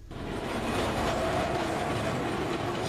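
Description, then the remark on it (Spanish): A loud, steady urban din in Calcutta, India, dominated by the rumble and clatter of a passing train, with a faint metallic squeal rising above the continuous roar. No voices stand out. “oigamos un fragmento más, unos sonidos que nos llevan a una de las grandes urbes de la India”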